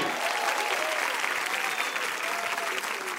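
An audience applauds with steady, dense clapping that holds at an even level for the whole stretch, a continuous wash of many hands with no talking on top.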